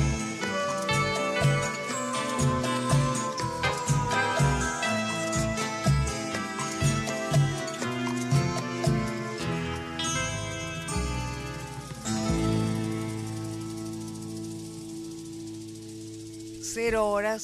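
The instrumental ending of an Argentine song: full, rhythmic accompaniment with steady chords for about ten seconds, then a long sustained final chord that rings out and slowly fades, without any singing.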